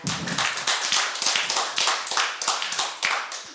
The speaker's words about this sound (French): Une bonne main d'applaudissements